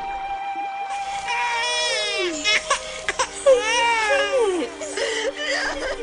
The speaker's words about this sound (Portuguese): E viu um bebê chorando. Ela ficou com muita pena dele e disse: Este é um menino israelita.